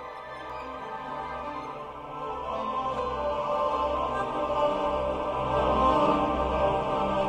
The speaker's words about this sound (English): That choral music sung by Trapped Ghosts is Whirlpool Galaxy M51A. Not literally. Like if you blasted off into space, you obviously wouldn't hear this. This sound is made by scientists taking real data and sonifying it, turning that data into sound.